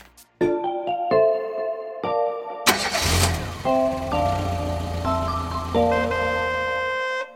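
A few tonal chimes ring out before a car engine cranks and catches with a sudden burst, then settles into a steady low rumble with a faint rev, while the chiming tones continue above it.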